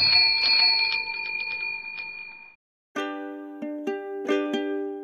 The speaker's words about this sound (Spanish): Usted suena bien, campanita. Tilín, tilín.